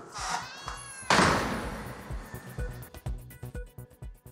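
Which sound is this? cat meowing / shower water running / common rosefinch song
cat meowing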